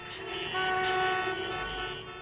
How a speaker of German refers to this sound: Da hatten wir Vorfahrt und der hat sich einfach entlang geschoben und hat dabei gehupt. Und wir haben richtig sauer zurückgehupt, weil eigentlich hatten wir Vorfahrt.